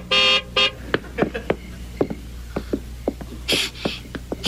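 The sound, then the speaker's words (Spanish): A Ferrari car horn honks twice in quick succession, loud, followed by a scatter of sharp clicks and knocks and a brief hissy burst. “un auto! Mm, ¡No necesitaste una pista!”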